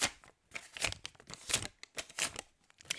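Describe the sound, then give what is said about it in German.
A paper 5-euro banknote being crinkled, handled and torn, giving irregular bursts of dry, crackly rustling that rise and fall over a few seconds, with no one speaking. “Weißt du, das hört sich dann wieder an wie Geld.”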